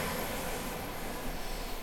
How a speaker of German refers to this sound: Äh, und jetzt fährt noch gerade ein Zug vorbei. Es ist eigentlich eine völlig falsche Kulisse für einen Podcast.